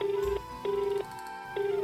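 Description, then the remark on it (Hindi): A phone call to Mohan rings on without an answer, heard as a steady electronic ringback tone repeating in regular bursts separated by short pauses, clear, with no voices. “पता नहीं मोहन फोन क्यों नहीं उठा रहा”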